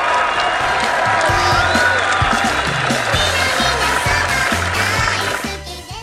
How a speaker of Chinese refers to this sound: 掌声送给你们